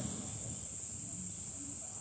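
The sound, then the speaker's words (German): A steady, dense chorus of crickets chirping continuously, a high shimmering trill filling the background with no pauses, with no voices present. “Hört mal zu. Oder sie Grillen, ne?”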